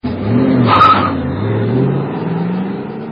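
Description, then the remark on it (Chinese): A car loaded with cargo revs its engine loudly as it speeds along toward Triangle Island, its pitch rising and falling in sweeping surges, with a brief sharp tire-squeal-like whine near the start. “小黑，不要开那么快。”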